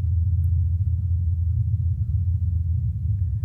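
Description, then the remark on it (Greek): A helicopter's rotor blades, recorded by an instrument on Perseverance from 80 meters away and isolated and amplified, produce a steady, deep droning hum that holds at a fairly even loudness, shifting as the helicopter leaves the area and returns (Doppler effect), with no voices present. “Επίση, μπορείτε να ακούσετε τον ήχο που αλλάζει καθώ το ελικόπτερο φεύγει από την περιοχή και μετά επιστρέφει.”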